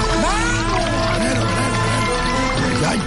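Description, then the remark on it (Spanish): Someone drinks water, a steady liquid sound lasting a few seconds with bubbling, shifting tones and vocal-like noises mixed in. “Ay, no te bebas todo el agua, mío, deja un poquito esa no!”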